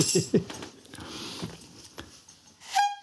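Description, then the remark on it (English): A single loud, brassy clown horn honk, sounded into a microphone, bursts out near the end, a bright nasal tone with a buzzy edge, after a stretch of soft clattering and rustling. “I may not improvise, but I will tell you that that a clown horn, which y'all here.”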